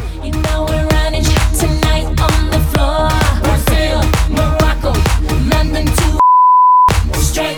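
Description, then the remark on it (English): In a music quiz, busy, loud music suddenly cuts out and a single steady, high-pitched censor beep blanks out the name of a town in the song's lyric, sounding for under a second and completely replacing the music before it briefly returns. “Deep down in Louisiana close to [beep]”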